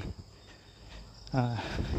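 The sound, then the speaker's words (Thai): A single frog croak, low and throaty, rises out of a quiet outdoor night hum in a public park, with faint insect chirring in the background. “กำลังออกกำลังกายอยู่ในสวนสาธารณะแห่งหนึ่งแล้วกัน อาจจะได้ยินเสียงกบเสียงเขียด เสียงรถวิ่งผ่านบ้าง”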